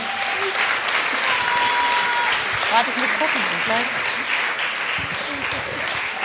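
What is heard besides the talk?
audience applause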